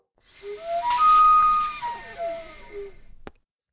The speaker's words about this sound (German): In dem Fall habe ich zwei Anweisungen in, also ich sauge Luft durch die Flöte ein. Das klingt eben dann so.